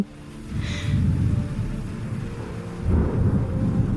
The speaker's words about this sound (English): Thunder claps, the rain falls in sheets.